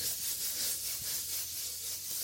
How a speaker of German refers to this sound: den wischen wir jetzt erstmal großzügig weg. Hm, und dann riecht es hier nicht mehr nach Katzenkotze, sondern nach Frosch, reiniger Kraftvoll gegen Fett und Schmutz. Und auch gegen Katzenkotze.